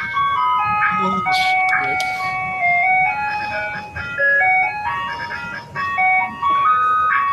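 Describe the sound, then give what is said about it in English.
A parked Mr. Softee ice cream truck plays its jingle, a bright, tinkly melody of high electronic notes, looping steadily and loudly for the whole stretch, with a low rumble and faint murmuring voices underneath. “Got a lot of things interrupt the show before, but not not Mr. Softee.”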